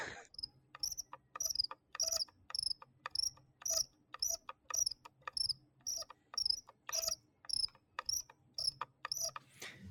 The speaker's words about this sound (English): And speaking of mice, I'm gonna give you guys a little ASMR right now. My oh no, my squeaky mouse wheel. All right, ready? Turn turn up the volume.